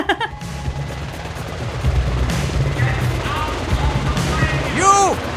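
A helicopter sound effect sample used in a song: the rotor thumps in a steady, rapid chop under a dense low rumble, with a few sharp cracks and a rising-and-falling tonal whine near the end.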